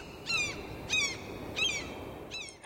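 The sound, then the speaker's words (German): A bird on a windowsill squawks four times in a steady rhythm, each call a harsh, raspy burst with bright harmonics, loud over a low background hum. “Oh, jetzt halt doch mal dein dummes Maul, plöckt der komische Vogel aus Frankfurt dem plökenden komischen Vogel auf der Fensterbank zu.”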